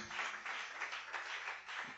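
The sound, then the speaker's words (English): A church audience in a chapel claps their hands together in a steady, dense wash of applause lasting a couple of seconds, without any voices on top. “Clap your hands”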